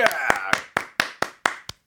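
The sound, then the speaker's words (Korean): A crowd claps in a steady, even rhythm, about eight sharp claps in under two seconds, with voices shouting over the first few beats before the clapping continues alone. “자, 박수 함성이요.”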